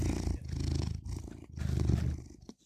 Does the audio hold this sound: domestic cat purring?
yes